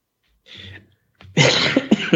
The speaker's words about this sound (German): apropos, ja, da muss selbst du husten jetzt. Da, ne? da, da verschlucke ich mich.